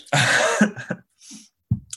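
A loud, explosive sneeze bursts out for about half a second, followed by a few softer breathy snorts and a short throaty rasp. No one speaks.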